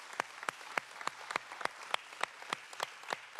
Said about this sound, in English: And so, if we can just give her a round of applause, Liberty Church would not be without her.